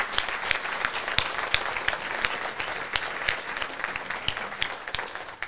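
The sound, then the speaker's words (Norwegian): An audience claps steadily for several seconds, a dense crackle of many hands at an even loudness with no voices standing out. “Applaus for uh, eh, Norge.”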